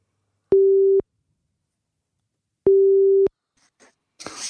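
A telephone ringback tone purrs twice, each a steady half-second beep separated by a long pause, followed by faint clicks and a rustle as the line seems to pick up, as a call is placed from a studio.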